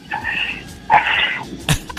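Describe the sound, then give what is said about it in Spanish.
A person imitates a dog panting with its tongue out, giving a few quick, breathy huffs in a rough rhythm, moderately loud, with no other sounds around. “O sea, así como le hacen los perros, pues. Vaya. Que andan ah. con la lengua de fuera y te ah.”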